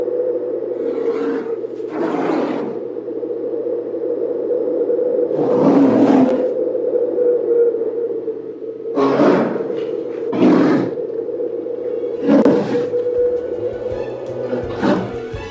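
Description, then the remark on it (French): A female polar bear of about 120 kilograms, a few metres away, calls with a long, low, droning growl, broken by several harsh, raspy roaring bursts at irregular intervals. The calls are loud and continuous, with no voices. “Et je vous propose pour conclure cette chronique d'écouter le cri si particulier de cette femelle ours polaire.”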